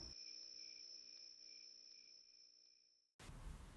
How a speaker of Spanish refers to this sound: Solo se escuchaba el ruido de los grillos en el monte.